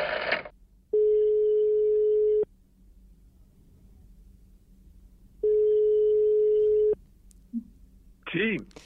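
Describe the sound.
A telephone ringing tone: two long, steady electronic beeps about four seconds apart, clear and fairly loud over a quiet line, with brief bits of a voice at the start and end.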